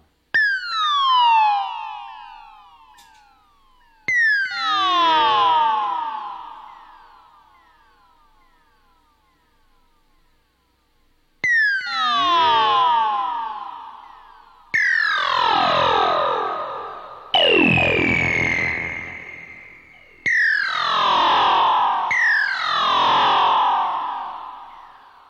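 Retro electronic tones from an early-1980s synthesizer with a delay effect: sweeping zaps and descending laser-like chirps with echoing delay tails, played in a series of loud bursts with short pauses between, no voices.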